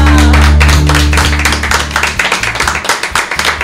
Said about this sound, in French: je pense qu'on peut applaudir Emma alors